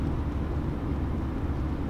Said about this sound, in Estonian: jaa, kas ta võtab midagi üles ka või on automürinat või? aa, ei, ma ei tea.